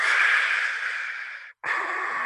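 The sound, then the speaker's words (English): A voice imitates heavy breathing: one long, loud, airy exhale, a brief pause, then a second strong rasping breath. No other sounds. “standing there silent, you know, super heavy breathing.”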